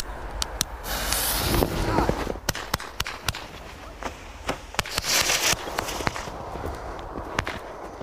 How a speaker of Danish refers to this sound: Lad os lige prøve at høre, hvordan sådan et støjsvagt batteri lyder. Der kommer lige et, øh, en smagsprøve på det her. Der skydes!